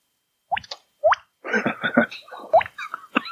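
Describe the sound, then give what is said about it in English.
Three hollow, bubbly mouth-made plops, each sliding quickly upward in pitch like a chat-app alert, spaced apart, with a burst of laughter and muffled voices between them. “I thought that was like a Skype noise when I heard it”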